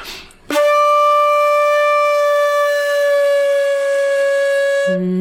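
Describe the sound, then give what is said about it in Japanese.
A shakuhachi sounds one long, loud note for about four seconds, bright and steady in pitch with a breathy edge, played alone with no talking, then stops abruptly; the player uses the meri technique, bringing the mouth closer to the mouthpiece to lower the pitch. “まあ、例えばこの例の音の状態から、えっ、ー、と、メルって言って、口と歌口の距離を近づけると、”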